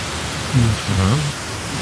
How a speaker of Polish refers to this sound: Jeżeli masz głośniej po prostu mikrofon, masz straszne szumy, tak, ledwo cię słyszę przez te szumy.